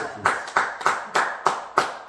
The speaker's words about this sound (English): Clap it up for the boss